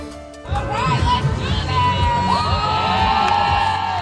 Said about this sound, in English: The protests were loud at an abortion rights rally outside the Supreme Court on Wednesday as the justices heard arguments in the court's first abortion case in four years.